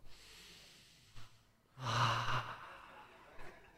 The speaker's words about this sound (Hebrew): מה יש לך? אה, אתה נושם. בוא נעשה תרגיל נשימה.